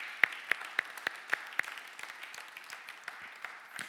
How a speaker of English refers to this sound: Come on, I feel like clapping my hands for that.